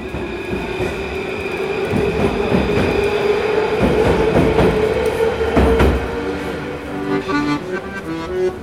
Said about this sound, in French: Je suis rentré dans une grotte souterraine et j'ai pris un métro.